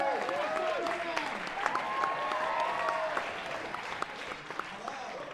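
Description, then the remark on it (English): An audience breaks into a sustained round of applause, dense and steady clapping throughout, with a few voices cheering or whooping over it before it starts to thin out at the end. “Uh, I heard uh, a crazy rumor that by round of applause, you guys are doing all right, so I'm not going to ask.”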